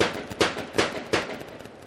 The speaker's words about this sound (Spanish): Y ese mm, se oye la están martillando cerca de mí, pero se oye el reflejo del sonido en el edificio del otro lado de la calle.